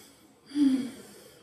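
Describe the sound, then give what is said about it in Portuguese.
A single deep, drawn-out breath, taken as a Japanese theatre breathing exercise, rising suddenly with a breathy rush and a faint voiced edge, then easing off. No talking accompanies it. “A gente faz um, uma respiração longa, né? A gente respira.”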